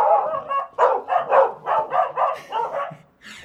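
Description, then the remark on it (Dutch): Dogs bark downstairs in a rapid, steady series of loud yaps, about a dozen in quick succession with a brief pause near the end before barking resumes. “Hoe gaan wij dit interview doen ja, als hier beneden honden zitten?”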